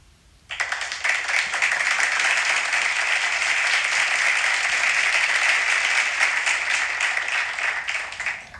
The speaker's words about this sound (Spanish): antes, antes un pequeño silencio porque vamos a aplaudir a los campeones del concurso sobre Canfranc que hacíamos la semana pasada. ¿Qué os parece el plan? Venga, un aplauso para todos los que habéis participado